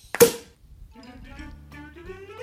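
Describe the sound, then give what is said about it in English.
A single loud, sharp cork pop from a champagne bottle right at the start, followed by a quieter, sustained tonal passage that sounds musical. “as he sits with his champagne, is ready to regale us with more stories about his his numerous dining experience. So go ahead and pop the cork”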